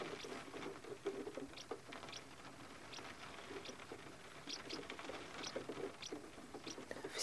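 nature, rain pattering

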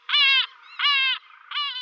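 bird, bird call sound effect

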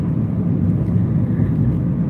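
vehicle, car interior noise

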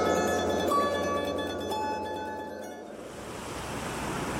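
nature, sea waves

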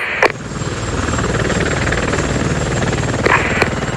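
vehicle, helicopter flying

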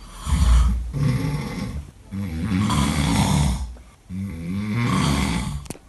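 human body sound, loud human snoring

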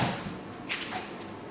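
household object, wine glasses clinking

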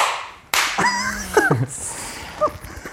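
human body sound, two hand claps

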